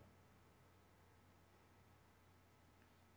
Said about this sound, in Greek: Ε, πάλι μικρόφωνο, έχει θέμα μικροφώνου. Πάλι έχει θέμα μικροφώνου. Δεν ακούγεσαι, sorry. Έχει πρόβλημα το κουμπί.